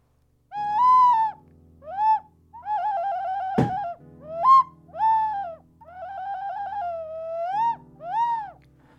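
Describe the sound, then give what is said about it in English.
A gentle ocarina melody, played as a pause where an advert goes in, sounds a series of breathy, hooting phrases over a soft low backing drone, with one brief thump partway through; no one speaks. “And if you didn't hear an advert, you just heard a beautiful ocarina.”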